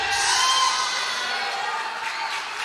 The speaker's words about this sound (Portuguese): Aplauda mais forte ao Messias, querido, porque hoje o espírito de revelação está caindo aqui, nesse lugar.